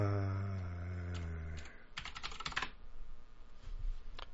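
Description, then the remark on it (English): A low steady hum gives way to a quick burst of typing on a computer keyboard while checking a network interface configuration, several rapid keystrokes clustered together, followed by softer scattered clicks and light background noise. “now you hear me typing.”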